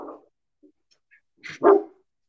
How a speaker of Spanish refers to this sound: Deja que deje de ladrar mi perro.